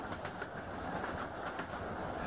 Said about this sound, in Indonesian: Aku duduk di bangku paling belakang, sebelah kiri gerbong ekonomi. Di kereta yang membawaku dari arah barat ke timur